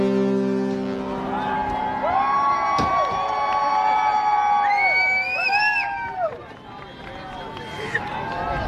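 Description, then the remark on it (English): A crowd of crew and passengers cheers on a ship's helideck as a Russian icebreaker, the Colossus, stops less than 100 meters from the bow, with cheering on both ships, many voices whooping and shouting together in a loud, continuous roar of rising and falling yells that fades slightly near the end. “Cheers erupt on both sides.”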